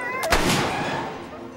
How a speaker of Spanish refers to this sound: El Coffee es quien genera los principales golpes de efecto en la historia, empezando por la acción desencadenante, el disparo al Coffee.